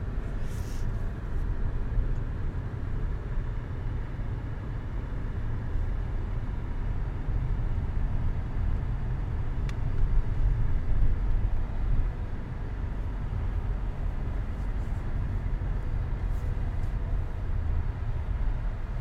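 Steady, enclosed low rumble inside a warm car while it is freezing cold outside, a constant engine and road drone that stays even throughout, with faint occasional higher clicks and no one speaking.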